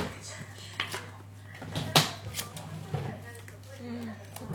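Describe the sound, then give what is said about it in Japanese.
Playing cards slide and snap as each player secretly passes one card from their hand to the person on their left, several quick papery rustles, over a low steady hum with faint murmuring voices. “情報操作全員自分の左隣の人に手札を1枚こっそり渡す”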